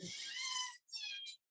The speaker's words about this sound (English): That's my dog. Hang on a second.